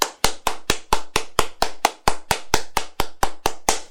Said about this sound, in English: Can I get a clap? Come on.